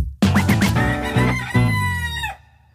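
A rooster lets out one loud crow lasting about two seconds, starting with a few choppy pulses before a long, strained, harmonically rich call that cuts off abruptly. No talking is heard.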